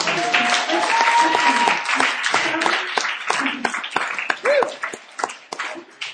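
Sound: audience clapping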